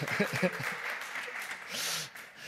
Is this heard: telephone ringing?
no